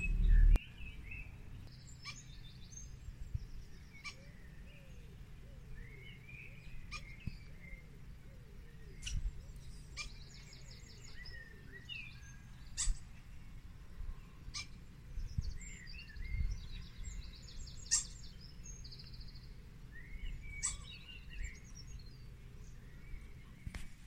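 Small birds on a neighbour's balcony, likely nesting under the roof, chirp and twitter in short, scattered bursts over a steady low outdoor hum, with no one speaking.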